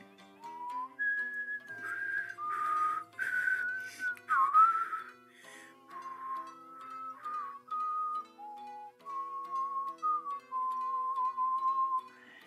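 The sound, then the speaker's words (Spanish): Two whistled tones, from a person and a mockingbird, drift up and down together, their pitches gradually converging into one shared note. The sustained, steady whistling stands alone, clear, with no talking. “Poco a poco los dos empatan el silbido.”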